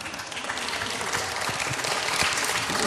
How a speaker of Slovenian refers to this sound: Hvala lepa, pa ne mi ploskati.